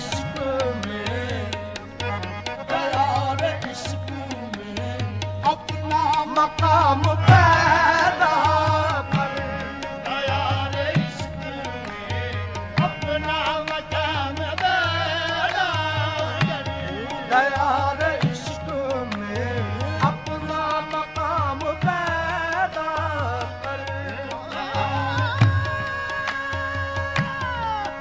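A sung Urdu song, with a melodic vocal line over a steady, pulsing bass and dense instrumental accompaniment, playing at a full, even loudness throughout.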